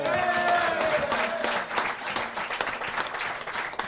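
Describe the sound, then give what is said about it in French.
An audience applauds a person being introduced, with dense, steady clapping that fills the whole stretch, a bright whistle or cheer rising briefly over it near the start. “Applaudissements pour lui également.”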